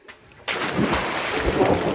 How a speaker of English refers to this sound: Without even thinking, I took a small step off the edge of the pool and jumped in.